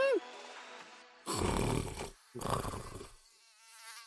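A thin, high mosquito buzz whines as a mosquito visits a man while he sleeps, then two loud, rough snores, each about a second long, rumble through before the buzzing returns faintly at the end.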